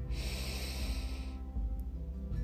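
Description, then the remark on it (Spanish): A long, deep inhalation through the nose, breathy, lasting over a second before trailing off into quiet, with a soft low hum underneath and no talking. It is taken during a guided relaxation breathing exercise. “Nuevamente tomas una respiración profunda.”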